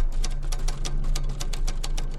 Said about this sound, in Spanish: Al fondo escuchaba cómo tecleaban.